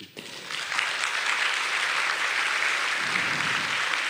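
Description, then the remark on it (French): A conference audience bursts into sustained applause for three speakers, a dense steady wash of many hands clapping that starts abruptly and holds at an even, fairly loud level throughout, with no voices. “On va euh, profiter on vous applaudit.”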